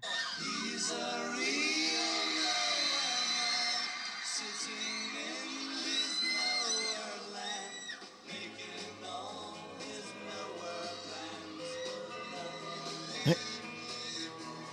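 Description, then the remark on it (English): A live band plays while voices sing a slightly off-pitch melody, with a steady full sound throughout and no loud cheering, just a quiet audience in the background. “I skipped all the intro of the song, and then typically what would happen, they'd start singing and people would scream. Well, that didn't happen here, and this is what we hear.”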